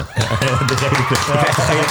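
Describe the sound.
A burst of recorded applause, played by pressing a yellow button, plays steadily for a couple of seconds, bright and fairly loud, with voices talking or laughing over the clapping.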